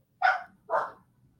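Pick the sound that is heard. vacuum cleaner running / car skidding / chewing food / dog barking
dog barking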